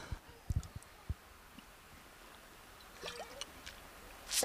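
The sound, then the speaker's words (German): Someone drinks from a glass of water: a few soft knocks and handling clicks, faint swallowing and liquid sounds, then a brief breathy rush at the end. No one speaks. “darf ich noch mal ein Glas Wasser trinken, bevor ich noch weiter austrockne.”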